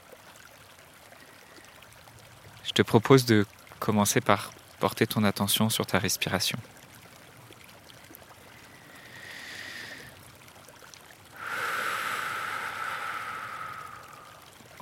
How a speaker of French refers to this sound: à quelques mètres de moi, t'entends peut-être la neige qui commence à fondre dans un petit ruisseau.